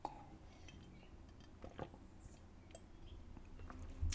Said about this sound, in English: hold on, let me have a sip of my celery juice. Hold on.